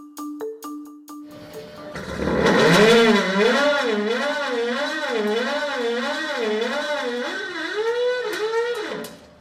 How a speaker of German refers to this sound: Was hier quietscht und zischt, ist Erdgas, das aus einer Leitung herausgesaugt wird. Zum ersten Mal in Deutschland wird seit Mitte Oktober 2023 eine bestehende Erdgaspipeline auf Wasserstoff umgerüstet.